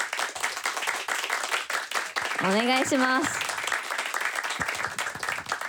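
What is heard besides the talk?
audience applause welcoming guest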